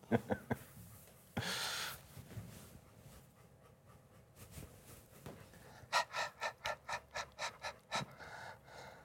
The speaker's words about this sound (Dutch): Ah ja, dat is de hond.